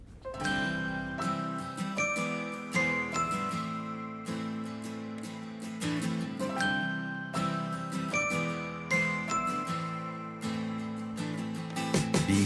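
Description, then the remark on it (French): A bright instrumental intro of a 2017 French pop song about the history of France, with chiming, bell-like tones over a steady rhythmic backing, played loud and up front with no singing or talking. “qui, figurez-vous, a écrit une chanson sur euh, l'histoire de France.”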